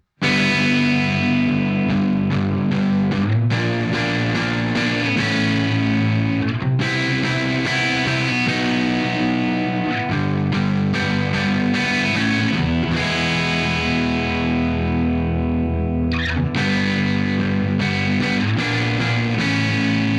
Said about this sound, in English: I'm going to move some bar chords around with the high E and B strings open and have the phaseomatic set on a pretty subtle phasing effect just to give it some movement.